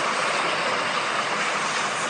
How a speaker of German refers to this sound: Ja, ich will aber nicht im Regen stehen. Oder oh, es wird richtig stark.